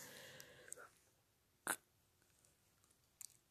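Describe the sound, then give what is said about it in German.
A soft, breathy yawn trails off, followed by a sharp click and a couple of faint mouth sounds in near silence. “Oh, Entschuldigung, ich habe gerade gegähnt.”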